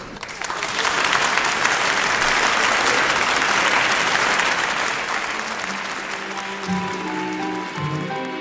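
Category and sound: crowd, audience applause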